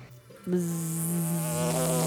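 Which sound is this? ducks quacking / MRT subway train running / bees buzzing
bees buzzing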